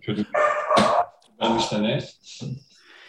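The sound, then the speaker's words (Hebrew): A dog barks in a few loud bursts in the background, with short pauses between them, while voices may be talking at the same time. “כן, כן, אז רגע, אני אסגור את הדלת שהוא לא ינבח.”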